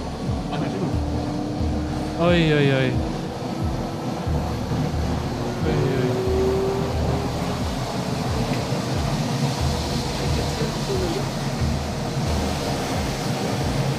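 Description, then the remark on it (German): A small airplane engine drones loudly and steadily before takeoff, a constant rumble with a faint whine running through it, while a voice briefly exclaims near the start. “Das Flugzeug ist an.”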